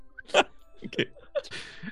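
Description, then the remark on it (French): A few short, high-pitched whimpers and yips from Max, a female dog, come in quick, uneven bursts, moderately loud, with a longer whining cry at the end. “Max, la chienne.”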